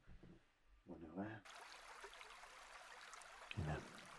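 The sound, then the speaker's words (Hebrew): A stream flows steadily as background sound for a guided meditation, its continuous babbling rush starting abruptly after a brief murmur of voice. Another short vocal sound rises over the running water near the end. “אנחנו ניתן לצלילים של הנחל להיות לנו ברקע.”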